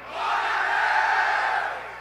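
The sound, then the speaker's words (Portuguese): A crowd of men shouts "Glória" in unison at a church service, without keyboard accompaniment: a sustained, loud collective cry lasting about two seconds, swelling quickly and holding steady before tapering off, with a roomy, reverberant quality. “Homens guerreiros, dão glória.”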